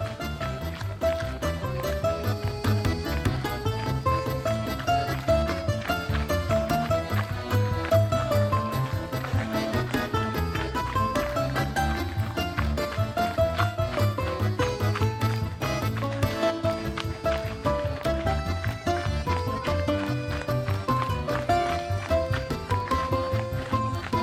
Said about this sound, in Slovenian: bomo stekli 30 sekund, drobni koraki. Tank, tank, tank, tank, tank, tank, stopi dal, dal, dal.